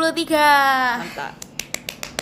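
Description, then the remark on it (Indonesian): A short voiced sound comes first, then about six small, crisp hand claps in a quick, steady rhythm, light and sharp rather than loud. “Mantap, ini lagi Tepuk tangan kecil”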